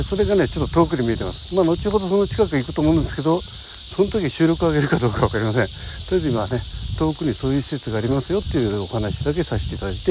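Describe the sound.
A loud, steady wall of cicada and insect buzzing in summer heat at Kogane Park, a dense high-pitched drone that never lets up, while a man talks continuously in the foreground.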